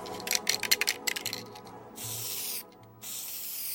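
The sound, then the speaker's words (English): An aerosol spray paint can hisses in a quick series of short bursts, then two longer sustained sprays with a brief pause between, as graffiti is painted on a crumbling wall, spraying the outline of a tall woman; fairly loud, no voices. “She began painting, as she often did, by spraying the outline of a tall woman.”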